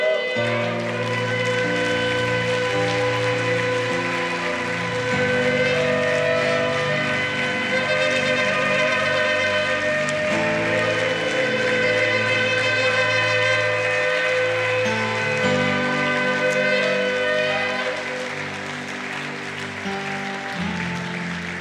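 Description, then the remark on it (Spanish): Several shofars blow together at a church service in long, loud, overlapping blasts, their brassy tones holding steady and shifting pitch every few seconds over about twenty seconds, with a faint crowd murmur underneath. “Que suene el chofado.”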